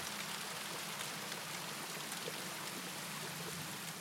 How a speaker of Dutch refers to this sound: Het water borrelt zachtjes op de plaat en zijpelt over de rand naar beneden, waar je het in het bezin eronder hoort kletteren. Zoveel kletterend water maakt nog best veel herrie.